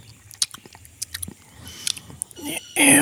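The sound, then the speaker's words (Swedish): Wet mouth smacking: a run of sharp, sticky clicks and squelches at an irregular pace, ending in a louder breathy hiss. “Det är lite mer smaskande.”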